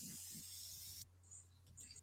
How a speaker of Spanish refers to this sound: Hay alguien escribiendo en la pared con un spray. Le está tomando el pirulín del spray. Lo está girando.